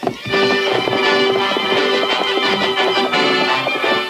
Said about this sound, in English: No hoofs had ever beat the plains like those thundering hoofs of the great horse Silver.